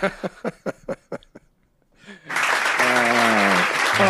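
audience clapping

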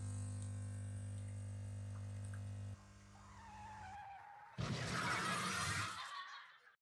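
coffee machine brewing coffee

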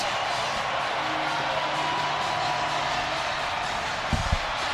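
baseball stadium crowd cheering

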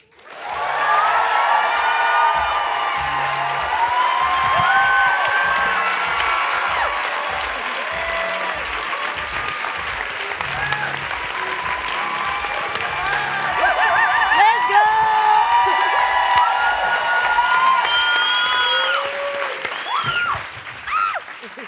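audience applause and cheering

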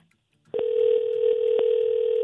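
telephone ringing tone

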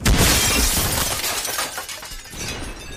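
glass window shattering

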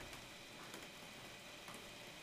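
rain falling outdoors

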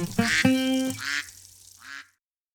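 duck quacking sound effect

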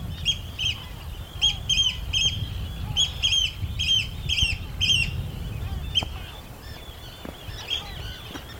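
oystercatcher calling

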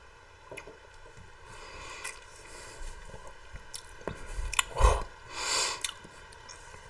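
sipping whiskey

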